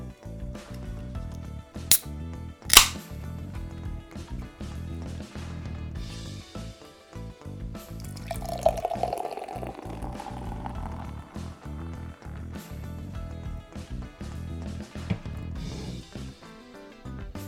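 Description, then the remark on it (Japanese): Beer from a can pours steadily into a glass, a continuous fizzing gurgle whose pitch rises as the glass fills, preceded by a couple of sharp metallic clicks as the can is opened. “じゃあちょっとついでいきますね”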